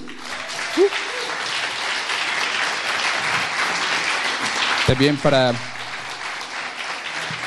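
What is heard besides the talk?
concert audience applause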